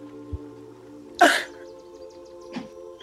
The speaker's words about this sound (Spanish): estornuda.